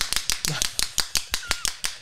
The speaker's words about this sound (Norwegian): Nå, nå, nå, nå skulle dere ha sett her. ja. altså, dette er jo djevelens verk. Det er, en, det er en klapper.